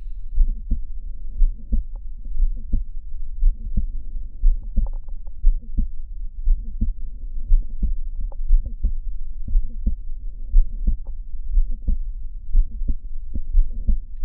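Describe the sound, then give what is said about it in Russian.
A steady, rhythmic heartbeat heard through a stethoscope, with repeated low thumps and a faint whooshing murmur between beats from mitral valve prolapse, a late- or mid-systolic murmur, continuing evenly with no talking. “Шум при пролапсе митрального клапана, в том числе музыкальный, может быть не только конечно-систолический, но и среднесистолический.”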